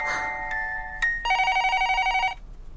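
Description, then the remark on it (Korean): A home telephone rings with an electronic, steady tonal chirp: a couple of short bleeps, then a sustained warbling ring of about a second, clear, with no one talking. “이제 집 전화까지 울리네?”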